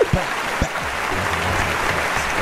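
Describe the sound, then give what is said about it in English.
Steady applause from a crowd, a dense, even wash of clapping that holds at a constant level throughout, with a couple of low thumps near the start. “Everybody, clap it up.”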